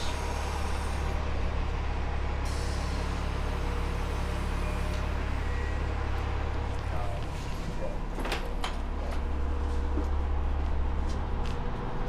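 A vehicle engine drones loudly and steadily throughout, a deep continuous rumble heard from the back of the vehicle beside the engine, with a few brief rattles and clicks near the end.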